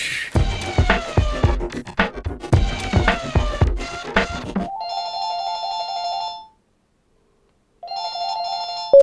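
A telephone rings twice with an electronic warble, the two rings separated by a short silence, following a busy burst of bright, rhythmic tones at the start, before an answerphone message plays.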